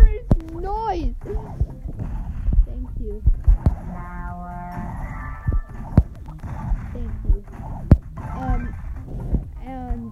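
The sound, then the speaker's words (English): Hooves clip-clop in sharp, uneven knocks across the whole stretch. A high, wavering whinny-like cry opens it, and humming tones and voice-like sounds run underneath. “Now can you please stop with this horse?”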